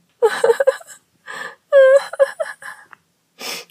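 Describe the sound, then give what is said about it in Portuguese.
A voice imitates Cinderella crying, with a series of breathy whimpers and gasping sobs in short bursts separated by brief pauses, ending in a hissing intake of breath. “Cinderela correu para o quarto chorando porque não tinha vestidos bonitos.”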